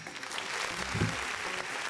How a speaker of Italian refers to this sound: un applauso.